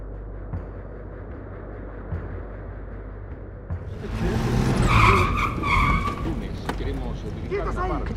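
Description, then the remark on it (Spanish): At least five cars screech to a halt on Lombú street at midnight on 12 December 1974, surrounding a house, tires squealing in overlapping bursts over a low engine rumble, loud, after a few seconds of steady background noise. “El 12 de diciembre de 1974 a la medianoche, por lo menos cinco autos se detienen en la calle Lombú, rodean la casa”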